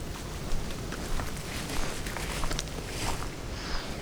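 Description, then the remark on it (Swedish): Steady footsteps crunch through forest undergrowth at a relaxed walking pace as someone goes to fetch a microphone that recorded wind overnight, with soft rustling and a diffuse outdoor background; no one speaks. “Ja, jag går bort och hämtar mikrofonen som suttit och spelat in en massa vind hela natten.”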